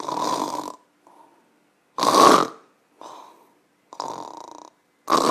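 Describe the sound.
A man imitates with his voice the loud, high-low snoring of a snoring-disorder sufferer, alternating strong rasping snores with quieter, softer ones in a high-low rhythm, about five bursts separated by brief pauses.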